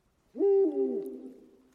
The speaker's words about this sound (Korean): 먼 곳에서 부엉이 우는 소리가 들려왔다.